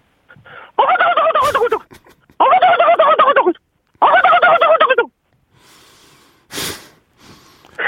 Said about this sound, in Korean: 왜 이제 그 사람들이 이제 먹기 전에 이제 잡으러 가잖아요. 네, 네, 네, 네. 예, 그때 이제 죽기 전에 이제 이제 인기척을 느낀 칠면조들이 이제 어. 엄마 이제 날뛰면서 하는 소리입니다.